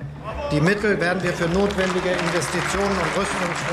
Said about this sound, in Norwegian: Hele parlamentet reiser seg og gir han stående applaus.